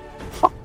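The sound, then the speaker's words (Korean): A person imitates a chicken's cry with two short, loud, sharp clucks, the second near the end, over a faint background hum, as an entry in a voice-impression contest. “음, 어떤 거 하시겠습니까? 뭐닭 울음소리 뭐.”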